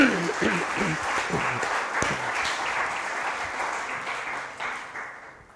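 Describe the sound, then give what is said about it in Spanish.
An audience applauds together, a dense, steady wash of clapping that holds for several seconds before thinning and fading out, with a few voices faintly mixed in. “Dele otro aplauso, por favor.”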